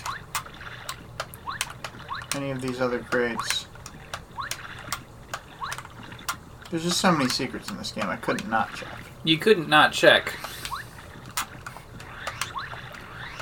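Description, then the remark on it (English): Soft, steady ocean water washes and laps quietly in a video game scene at a boat, used instead of music, while two people talk over it. “I love that there's, like, quiet ocean sounds instead of music.”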